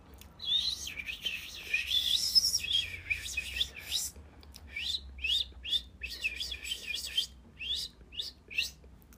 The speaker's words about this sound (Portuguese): Logo os passarinhos começaram a soltar seu cântico de júbilo. Ah, como gorjeavam e cantavam!